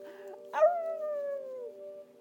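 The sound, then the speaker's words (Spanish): A wolf howls with joy while hugging a big wolf tightly from behind, a single howl that starts with a sharp yelp, then slides slowly downward for about a second before fading, over a steady low background hum. “lo abrazó fuerte por detrás, aullando de alegría.”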